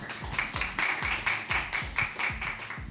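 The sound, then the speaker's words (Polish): Steady applause from an audience in a hall at an evening event welcoming the poet Natalia Malek from Warsaw, a dense wash of many overlapping hand claps at even loudness throughout, with no voices. “Na sali słychać oklaski”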